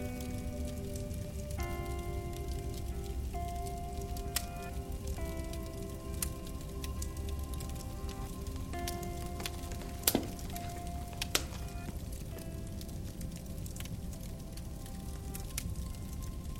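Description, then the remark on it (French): Burning wood crackles in a fireplace: a steady soft hiss with scattered sharp pops and snaps at irregular moments, over a gentle sustained musical tone that shifts pitch slowly. “Le rythme de votre respiration s'harmonise avec le crépitement du bois qui se consume.”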